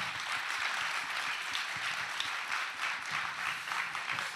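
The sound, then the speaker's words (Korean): Sustained audience applause, a dense wash of many hands clapping steadily at moderate volume for several seconds, with no speech over it. “박수 한번 주세요.”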